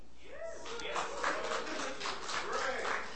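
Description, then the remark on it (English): An audience claps in a steady, dense patter of many hands for a few seconds, with some voices calling out over the applause. “Every single one of you that is clapping better have your butt here and in a seat.”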